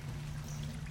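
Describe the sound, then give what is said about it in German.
Schnapps is poured into a glass in one short, steady stream, a continuous trickling splash with a low hum beneath it, lasting under a second with no voices. “meine Freunde, jetzt wo wir so gesellig beieinander sitzen, ich habe einen Schnaps dabei.”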